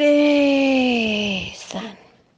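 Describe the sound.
A voice imitates swans yawning, a long, drawn-out yawn, a sustained tone that slowly sinks in pitch for over a second before breaking off into a short breathy sigh.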